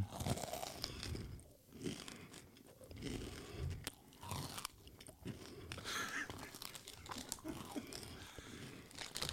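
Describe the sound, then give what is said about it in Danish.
Steady, loud crunching of someone chewing a big mouthful of potato chips during a radio programme, with dense irregular crackles and crisp snaps continuing throughout, no talking. “Problemet er, at jeg har taget så mange chips i munden, jeg er nødt til at tykke færdig.”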